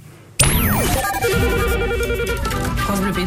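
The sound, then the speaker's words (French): An electronic telephone ring on France Bleu radio signals a listener calling in to give the live weather report. Its warbling trill of tones rides over a dense, loud musical backdrop, with a quick descending swoop at the start. No one speaks. “Oui, salut France Bleu, j'appelle pour faire la météo en direct.”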